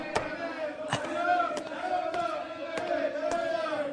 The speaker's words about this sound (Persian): سر و صدای بیرون مال چیه؟ بچه ها دو سه نفر رو دوربر اردوگاه دستگیر کردن